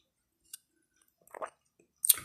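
Someone drinks water: a faint lip click, then a short wet gulp and swallow, followed by a louder, breathy slurp at the end. Nobody speaks.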